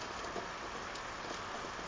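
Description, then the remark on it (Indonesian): Steady rain falling, a dense even hiss of drops spread across the whole clip with no pauses, moderately quiet, with no voices. “Mereka semua memperhatikan rintikan air hujan yang jatuh.”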